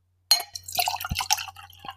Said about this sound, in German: Vielleicht, vielleicht können wir so ein sexy äh, Einschenkengeräusch machen. Moment.